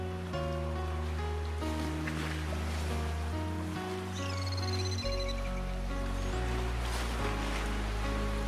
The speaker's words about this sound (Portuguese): Estás a ouvi-lo? mágico. Dá-nos sonhos e sonhos muito tranquilos. Ouve o som do mar.